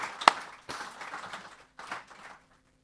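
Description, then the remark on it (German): Soft audience applause for the young people of the audience rises in a brief burst, dips, swells once more, then fades to silence after about two seconds, with no one speaking. “Und ich denke, an der Stelle sollte man den jungen Leuten auch mal einen Applaus zukommen lassen für das, was in unserer Gemeinde nämlich auch mit tun.”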